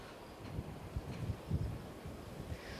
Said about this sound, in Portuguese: Bom, pelo jeito vai da praia, tá ventando bastante e a gente já percebe que o sol já apareceu por aí.